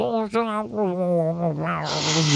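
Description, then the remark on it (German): A voice mimics an old, worn vinyl record, a wavering, warbly sung tone that turns into a loud breathy hiss near the end. It lasts only a couple of seconds. “das ist dann auch echt so, wie so Schallplatten, die aus dem, Ding 25 Jahren nicht mehr gewaschen worden sind und oder also die sich anhören wie”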